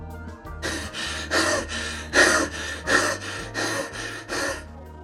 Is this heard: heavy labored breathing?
yes